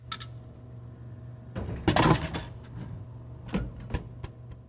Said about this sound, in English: This is the sound of a gavel.